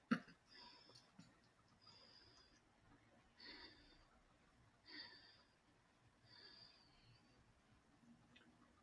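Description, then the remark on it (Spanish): Quick, shallow breaths repeat at a steady pace, each a soft airy huff roughly every second and a half, fairly faint, with no talking; a person's altered breathing, driven rapidly from the stomach. “Mi respiración, si te fijas, se empieza como a alterar y el estómago da como muy rápido la respiración.”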